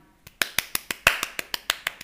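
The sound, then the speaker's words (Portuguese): A single pair of hands claps briskly and steadily, about a dozen sharp, crisp claps in an even rhythm, with no voices over them. “Isso foram palmas.”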